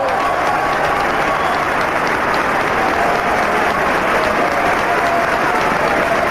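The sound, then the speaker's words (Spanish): A large crowd applauds and cheers loudly and continuously in support of Adolfo as he announces that Argentina will suspend payment of its foreign debt, a dense roar of clapping and shouting filling the whole stretch without letup. “Escuchan, ¿no? ese alboroto, ese enorme apoyo que está recibiendo el Adolfo.”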